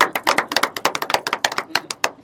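hand clapping applause

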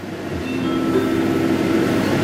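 train travelling on rails

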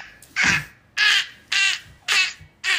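crows cawing

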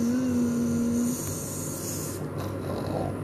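snoring

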